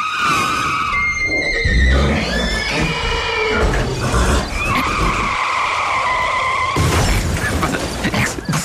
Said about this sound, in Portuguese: Quando à sua frente acontece um aparatoso acidente envolvendo um automóvel e uma carroça.